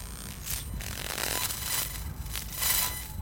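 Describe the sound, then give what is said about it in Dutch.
Deep, crackling electronic interference from a mobile phone being switched on, on a street, comes in uneven bursts, a gritty buzzing crackle over a low grumbling hum, steady in loudness, with no voices. “hoor je heel weird gekraak. Diep en geknor.”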